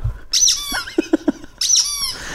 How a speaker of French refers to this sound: Vous voyez un bébé qui tape sur un jouet qui fait du bruit et ça l'étonne. Et ben voilà. Comme par exemple ce jouet-là.